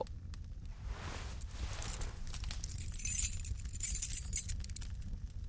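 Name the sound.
bunch of keys jangling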